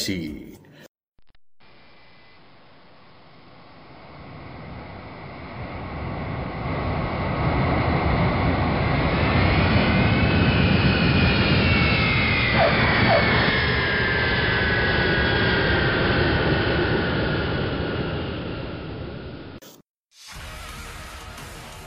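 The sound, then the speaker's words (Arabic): A jet airplane roars as it comes in to land in the city of Osaka, Japan, a loud broad rumble with whining turbine tones that swells steadily for nearly twenty seconds before cutting off abruptly. “وتحط بنا الطائرة الآن في مدينة أوساكا اليابانية من بلاد الشمس المشرقة”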